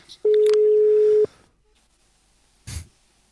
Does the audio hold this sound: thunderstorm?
no